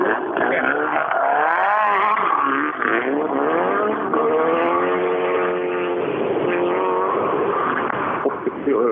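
A tractor pulling machine's engine roars loudly and steadily throughout, its heavy harmonic drone dipping and then climbing in pitch as it strains under load during a tractor pull run.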